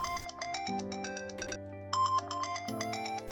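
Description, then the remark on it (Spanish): An alarm clock in a bedroom rings in the morning with a bright electronic melody of quick repeating beeps and sustained tones, steady and fairly loud, with no voices. “Apago el ruido del despertador y comienzo con, arriba todo, ya es tarde, tenemos que prepararnos para ir a la escuela, todo pasa tan rápido que me miro en el espejo y sigo en pijama.”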